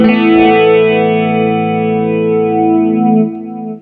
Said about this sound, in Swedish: Men eh, Flange har jag mest använt.